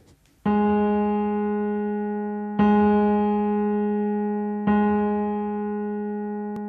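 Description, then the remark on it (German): A steady, bright musical tone on G sharp, rich in overtones, sounded three times in a row, each note held for about two seconds and slowly fading before the next begins. “Jetzt zeige ich dir erstmal, wie sich Menschen mit grundhohem Giss anhören, denn sie übt einen Beruf aus, der Menschen mit Grundton Gis zugeordnet würde.”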